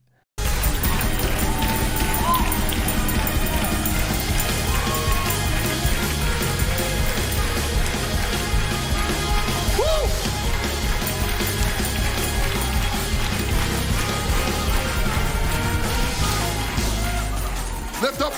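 A loud, unbroken church praise break: driving music with heavy rhythmic pounding and an audience shouting and cheering throughout, dense and energetic from start to finish.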